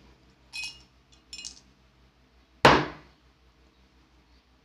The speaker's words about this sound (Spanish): Pero el charro sin tutubear tomó los dados, los dejó caer sobre el vaso, los agitó.